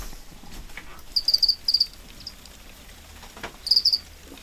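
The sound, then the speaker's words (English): Farmed crickets inside a warm sea container chirp in short, bright trills, grouped in three bursts against a soft, steady background hiss, with no voices present. “So I tend to kind of rotate to make sure no place is constantly in bug production.”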